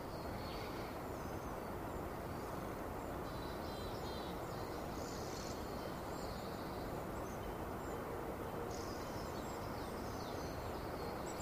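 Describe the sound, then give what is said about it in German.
A steady, loud rushing fills the outdoor scene while birds chirp intermittently above it and faint cowbells clink in the background. “Also, man hört die Vögel, man hört das Rauschen, die, Kuh, die Kuhglocken im Hintergrund.”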